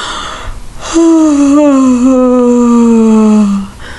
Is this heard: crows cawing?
no